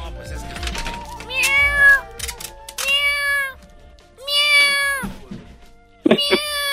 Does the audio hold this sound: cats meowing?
yes